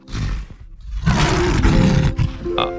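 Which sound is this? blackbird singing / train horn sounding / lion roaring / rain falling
lion roaring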